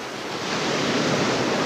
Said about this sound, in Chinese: 这时，急流裹着豪威，离瀑布越来越近了。